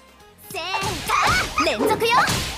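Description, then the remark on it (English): A quick flurry of video game combo attack hits from pressing B repeatedly for a normal attack combo, sharp whacks and swishes close together, mixed with a character's shouted battle cries over steady game background sound. “Press B in succession, it will turn the attack into a combo.”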